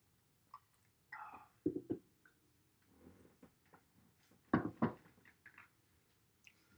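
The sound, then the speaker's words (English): Someone drinks: a soft slurping sip, a couple of gulps and clinks as a glass is handled and set down, with scattered small clicks and no talking. “Since we're blocking out, I'll take another sip.”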